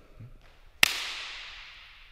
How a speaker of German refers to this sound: Ansonsten, hier, wenn ich hier mal in die Hände klatsche.